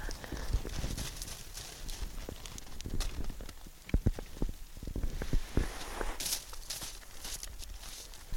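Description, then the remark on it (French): A herd of reindeer, one about a metre away, scrape and paw at snow, a steady run of crunching, scuffing strokes punctuated by sharp knocks, their antlers also scratching the snow, with a soft outdoor hiss underneath. “Vous l'entendez gratter la neige, hein Et si vous tendez un peu l'oreille, vous entendez même leur bois qui gratte la neige.”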